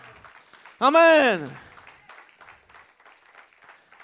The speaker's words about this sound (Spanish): Dale un aplauso a Cristo, aleluya.